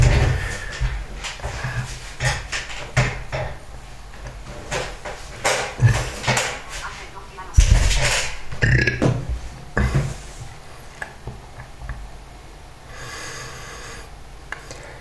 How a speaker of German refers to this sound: So. Rechner fährt hoch. Ja, ihr hört es. Der Rechner fährt hoch.